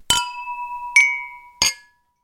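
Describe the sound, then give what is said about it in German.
Three bright clinks of a glass beer mug raised in a toast, each a sharp strike followed by a sustained ringing tone, spaced about a second apart, fairly loud with no voices. “Ich muss mich erstmal entschuldigen, mein Klang ist heute geht so gut von meinem Glas, denn mh, hm, diese Spülmaschine wollte nicht so spülen, wie ich das wollte.”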